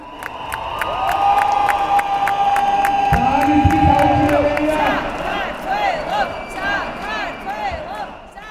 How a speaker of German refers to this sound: Sakartvelo, Georgien, rufen die Menschen euphorisch. Der Jubel will kein Ende nehmen.